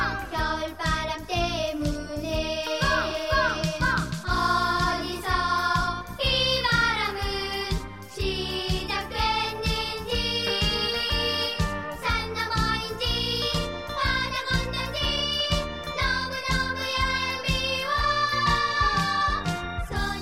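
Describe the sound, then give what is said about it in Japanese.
A bright, bouncy Japanese winter children's song, one taught in the fourth-grade elementary school music textbook, plays steadily throughout, with a lively rhythmic beat and a light jingling, tinkling sound riding along with the melody. “でも、寒さに凍えながらも元気いっぱいに歌ってる子供たちが思い浮かんで、ちょっとほっこりしちゃいますね。”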